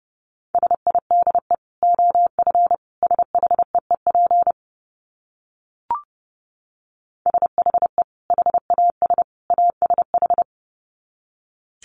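Rapid Morse code at about 30 words per minute: a single steady mid-pitched tone keyed in quick dots and dashes, in two bursts separated by a short pause with a faint click.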